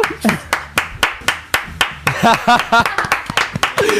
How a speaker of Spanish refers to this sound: Si se alarga el aplauso, después puede venir la risa.